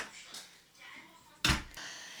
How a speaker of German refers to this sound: Mach gerade die Tür zu, bitte.